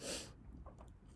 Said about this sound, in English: Excuse, excuse me. I'm yawning and stuff, man. I just woke up.